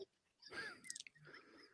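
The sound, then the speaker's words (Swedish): Soft chewing of a bun: moist, irregular mouth sounds with a few sharper clicks in the middle, no talking, over about two seconds. “Um, det är en uh, bulle.”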